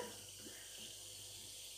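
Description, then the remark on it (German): Sparkling water pours steadily into a cup for a cake batter, a continuous bright hiss and fizz with a light bubbling trickle, fairly quiet, with no voices. “So, ich gieße es gerade mal in die Tasse.”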